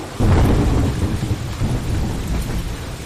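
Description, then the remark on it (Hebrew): A thunderstorm with heavy rain over the Amazon: deep, sustained rumbling of thunder rolls beneath a steady, loud hiss of pouring rain, with no voices present. “שבעה ימים שטף הגשם את האמזונס.”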